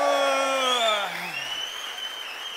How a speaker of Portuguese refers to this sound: O pessoal de Pedreira, um grande aplauso.